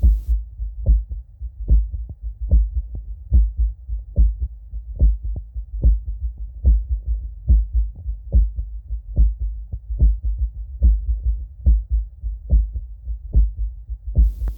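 Heart sounds through a stethoscope of a patient with atrial flutter, heart failure and a past myocardial infarction: fast, steady low thumps, about two a second, with fainter extra pulses between them over a constant low rumble. No one speaks.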